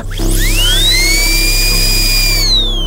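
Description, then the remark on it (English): A high-pitched dental drill whines up to speed and holds a steady piercing whir before tapering off, loud over a low background hum, with no voices. “That's when you hear the drill.”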